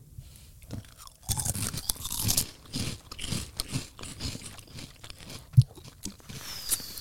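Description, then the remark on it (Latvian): Someone chewing sour gummy candy, with a steady run of soft, moist, squishy chomps and occasional sharper bites for several seconds, with no talking. “Es biju nopirkusi mums tās skābās šoku kožļinas. Jo es gribēju pamēģināt, cik viņas skābas ir.”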